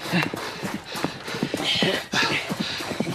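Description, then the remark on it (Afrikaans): Galloping hooves of two black horses pound in a quick, uneven rhythm, a steady patter of dense, overlapping hoofbeats that carries on without a break for the whole moment. “Hy moet maar net hardloop om nie vir die twee swart perde kop te gee nie.”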